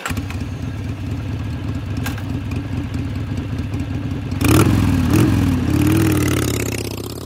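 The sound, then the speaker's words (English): A current-generation Harley-Davidson Milwaukee-Eight V-twin motorcycle engine idles with a lumpy, uneven low rumble, then is blipped louder around the middle before settling back to a steady idle, with no one talking. “That is the extremely distinctive sound of the current generation and one of the most iconic motorcycle engines of all time, Harley's Milwaukee 8.”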